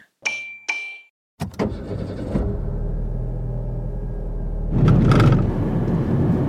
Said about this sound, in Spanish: Ahí escuchas el ruido, ¿verdad? Sí, ahí es. Es un ruido de suspensión que estamos escuchando ahí.